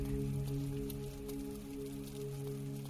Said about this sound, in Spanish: Comenzó a llover. Cada gota era un alivio a mi angustia.